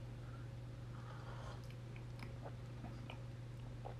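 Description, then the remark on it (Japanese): Quiet sips of hot coffee made from long-awaited beans from Kaburagi, a coffee shop in Kuramae, Tokyo, with soft slurps and small mouth clicks scattered over a few seconds, set against a steady low electrical hum; no one speaks. “今日はもうずっと半年ぐらいですねあの待ちに待った豆を手に入れたのでそれを飲んでみますではいただきます”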